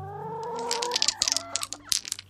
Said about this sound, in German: Und dann gibt es ja noch die Ur-Ur-Ur-Ur-Ur-Ur-Ur-Ur-Ur-Enkel der Dinos. Die Hühner.